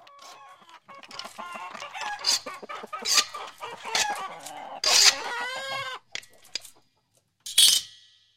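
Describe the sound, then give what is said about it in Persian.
Hens and roosters in a cage cluck over one another in a busy, continuous stream of squawks and clucks, loud, with a sharper squawk near the end, as they peck at the cage wall. “مرغ و خروس ها از توی قفس می دیدند. قدقد می کردند و دیواره قفس را تک می زدند.”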